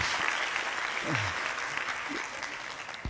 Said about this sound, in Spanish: Denle un aplauso a Jesús, hagan una bulla, griten un amén, haga algo.